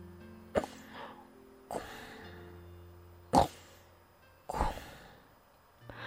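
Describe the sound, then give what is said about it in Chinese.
The big mouse in a bedtime story snores while the little mouse tries to sleep: loud snoring with four breathy snorts at a slow, uneven rhythm, separated by low humming tones, and no one talking. “大老鼠，大老鼠，你在打呼噜！”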